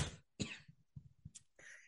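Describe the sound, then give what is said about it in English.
A person choking gives two sharp coughs in quick succession, followed by smaller throaty sputters and a raspy, hissing intake of breath. No one speaks. “excuse me, cough. choking for no reason.”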